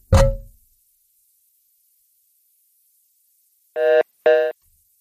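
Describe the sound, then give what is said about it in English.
A dull thump opens, followed by a few seconds of silence, then a telephone ringback sounds as two short, clear tonal pulses in quick succession, fairly loud and with no talking; a phone call being placed to reach someone, with a problem with the phone. “We're trying to get Lucas on the phone. There's a, a problem with the phone here.”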